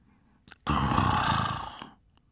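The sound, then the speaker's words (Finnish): A voice does a loud, rasping imitation of a single long snore, lasting just over a second with a brief intake of breath before it. “Kuului silloin mahtava jyrin. Lukkari kiivastui. Kuka piru siellä kuorsaa?”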